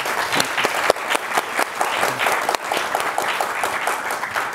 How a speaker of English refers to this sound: Uh, so please join me in a round of applause for the minister for his, uh, his remarks and time.